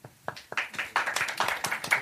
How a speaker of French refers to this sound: Vous avez entendu peu de choses. C'est pas parce qu'on a un problème de micro, c'est parce qu'il y a peu de gens qui ont applaudi.